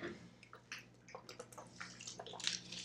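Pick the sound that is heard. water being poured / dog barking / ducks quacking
water being poured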